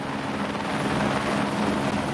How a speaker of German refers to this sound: So klein ist der Landeplatz, dass der Hubschrauber gar nicht richtig aufsetzen darf. Der Hochvogel, 2600 Meter hoch, genau auf der Grenze zwischen Österreich und Deutschland, unweit von Oberstdorf.